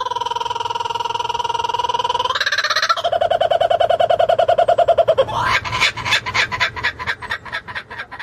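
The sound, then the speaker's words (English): A loud bird call sound effect: steady, tonal whistling notes that step upward in pitch, then break into a fast, rattling chatter of repeated calls. No voices are heard. “Smack the bird, and let's get into it.”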